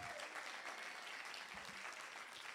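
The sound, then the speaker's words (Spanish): An audience breaks into sustained applause for the Lord, a dense, steady wash of many hands clapping at once with no pauses, holding an even loudness throughout. “Den un aplauso al Señor, claro que sí.”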